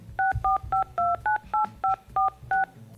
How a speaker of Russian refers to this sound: Так давайте же мы э, свяжемся с ним и спросим, что он там делает и почему он там. Здесь должны быть достаточно клишированные э, звуки набора номера.